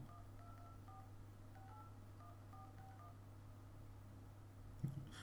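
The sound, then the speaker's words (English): A quick series of two-tone phone keypad beeps, about a dozen short presses in an uneven rhythm, over a steady low hum, followed by a brief click near the end. “Yeah, I'm going to quickly phone him and get him to phone them and phone me”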